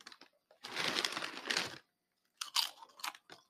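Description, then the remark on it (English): Loud, crisp crunching of organic sea salt potato chips being chewed, a long dense burst of crackling followed by a pause and several shorter, sharper crunches, with no talking. “I see you bought some snacks with you there. Yeah, I got uh, organic sea salt chips.”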